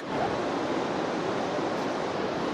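A steady, full wash of sea surf roars continuously, with waves rolling onto the shore and no voices, just the dense hiss of moving water throughout.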